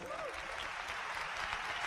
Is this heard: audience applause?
yes